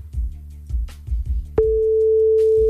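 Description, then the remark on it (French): A telephone ringing tone sounds as one steady, mid-pitched electronic note held for over a second, following a stretch of low, rhythmic thumping; no one picks up and no voices are heard. “Ouais, bon, bah, elle décroche pas.”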